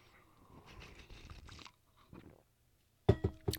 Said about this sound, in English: Hold on, I'm going to have another sip.